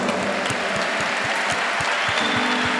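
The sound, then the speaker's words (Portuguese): A large audience at a televised event applauds the families present, a dense wash of clapping with a regular low thumping beat pulsing underneath throughout. “Vamos aplaudir essas famílias que aqui estão.”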